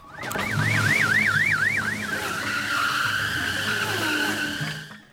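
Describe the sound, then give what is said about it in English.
Loud street traffic heard from an apartment right next to the road: a car's engine rumbles beneath a rapid warbling electronic wail that settles into a steady high whine, continuing for several seconds with no one talking. “Well, yeah, and we're in my apartment and it's right next to the road, so we might be able to hear the cars.”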